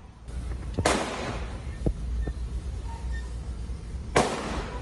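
Two sharp, loud gunshots ring out about three seconds apart over a steady low rumble, with a couple of faint knocks in between and no talking: military police officers in Goiás, Brazil, firing toward a man by a bus stop, filmed by a driver; the first two shots miss.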